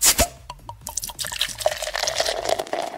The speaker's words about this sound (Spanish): Yo sí voy a destapar mi chela, permíteme.